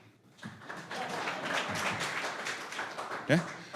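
A live audience at an improv show breaks into a burst of clapping at the host's prompt, swelling quickly and holding steady for a few seconds, a dense patter of many hands with some crowd murmur.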